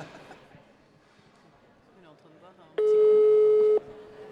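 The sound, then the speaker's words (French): A single loud, steady telephone ringing tone, the second ring of an outgoing call to a reporter, sounds for about a second, following quieter background chatter and faint voices. “Deuxième hein. sonnerie.”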